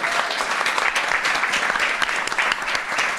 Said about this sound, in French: qui est derrière moi, qui est à la qui est toujours impeccable, on peut l'applaudir.